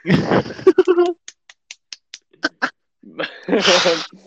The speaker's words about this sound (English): Liam Neeson, ladies and gents. Round of applause.